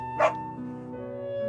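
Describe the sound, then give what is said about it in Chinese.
A single short, high yip from a small dog named Jiang Brown rings out near the start, followed by steady sustained musical tones with no other barking. “露丝太太的丈夫很久以前就去世了，一直以来，他和一只叫江布朗的小狗住在一起。”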